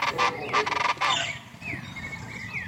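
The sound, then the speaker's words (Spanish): Chachalacas call loudly and raucously at dawn in Tuxtla, a burst of harsh, rhythmic cackles, followed by thinner whistled bird notes trailing off. “¿Has escuchado las chachalacas al amanecer?”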